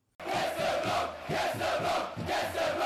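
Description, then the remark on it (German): A loud, sustained crowd chant used as an intro jingle for a segment rolls in suddenly after a brief silence, many voices roaring together in a steady rhythmic swell with periodic accents, like a stadium away-section singing. “Ihr habt es vielleicht am Einspieler schon gehört. Die Kategorie heißt Gästeblock, Gästeblock, Gästeblock.”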